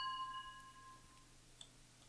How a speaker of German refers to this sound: Übrigens einer der coolsten Geräusche, die man machen kann, finde ich. Mit Weingläser zusammenstoßen. Ja. Ist ein geniales Geräusch.